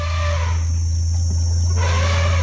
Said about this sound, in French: Non, non, non, ça c'est vraiment ce que j'ai filmé avec mon téléphone portable. C'est le son de votre téléphone C'est le son de mon téléphone. On est dans la Jeep, on entend le bruit et écoutez les barrissements.